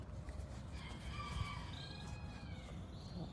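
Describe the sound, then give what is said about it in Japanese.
A bantam rooster belonging to another household crows once in a neighbourhood park, a strained, drawn-out call lasting a second or two, over a steady wash of outdoor background noise with no talking. “チャボもいるんですこれはうちのチャボじゃなくてよいしょすごい方あのまた別のお家のチャボなんですけど”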